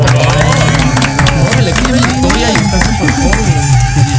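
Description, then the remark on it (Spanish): A TV show audience applauds to welcome actor Rodolfo Zarco, a dense, steady wash of clapping that stays loud for several seconds, mixed with music and a murmur of crowd voices. “Un aplauso.”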